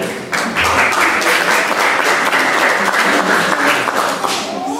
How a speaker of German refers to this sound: aber das ist ein Applaus wert. Danke.